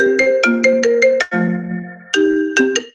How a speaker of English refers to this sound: sorry okay someone called me on the phone